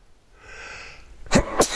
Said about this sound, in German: Gleich muss ich niesen.